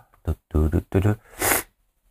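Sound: sniffing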